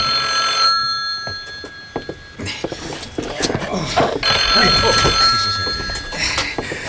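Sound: telephone ringing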